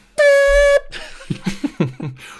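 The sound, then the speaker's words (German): A single loud, blaring air horn blast lasts about half a second, followed by quieter rhythmic sounds and faint voices in the background. “Aber so richtig laut wie so ein Airhorn einfach die ganze Zeit. So eine, so eine Truckerhupe, die dich mal richtig wach macht.”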